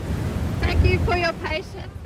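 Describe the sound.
Strong wind roars and buffets the microphone in a constant low rumble, while a voice talks faintly underneath, half drowned out by the gusts.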